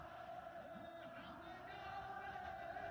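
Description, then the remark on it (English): A dense, steady roar of a large crowd played from a video clip, with overlapping voices and occasional shouts rising from the continuous murmur, constant throughout. “And I want you to keep in mind, keep the clip up and just, you can loop it as B roll later as I, as I make this talking point.”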